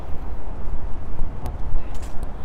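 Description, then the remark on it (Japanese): A steady, loud rumble of traffic under the Shuto Expressway by a river in Tokyo, a dense low roar with passing vehicles blending together overhead, continuous and reverberant with no voices. “これ首都高の下それから川のところは音がすごい大きく聞こえるけどそれを抜けたらすぐねまた音がなくなるという感じで”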